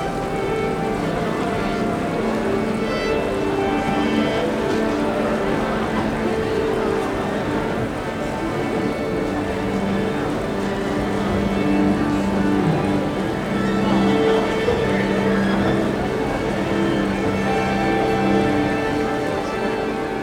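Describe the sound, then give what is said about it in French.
An orchestra tuning up: a dense, steady wash of many sustained notes at different pitches overlapping and shifting over twenty seconds, with no clear melody and no voices. “On vient d'entendre euh, un orchestre qui essaye de. Enfin, qui s'accorde, il ne fait pas que essayer.”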